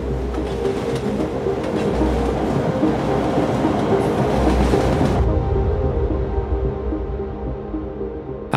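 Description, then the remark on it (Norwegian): A train heading south rolls steadily along the rails with a continuous rumble and faint rhythmic clatter, the brighter hiss dropping away partway through while the heavy low roar carries on. “Like etter gikk den unge kvinnen om bord på et tog med kurs sørover.”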